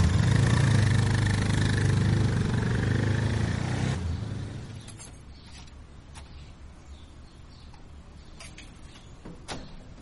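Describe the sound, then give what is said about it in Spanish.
A motorcycle engine in Santa Cruz rumbles loudly for a few seconds, then fades out, leaving a quieter background with a couple of faint clicks. No one speaks. “Es la segunda vez que la veo y ella me recoge en su moto.”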